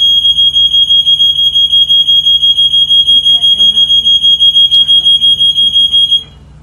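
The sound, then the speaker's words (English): A loud fire alarm being tested blares continuously in rapid pulsing beeps for about six seconds, with faint background talk underneath, then cuts off abruptly. “They're testing the fire alarm.”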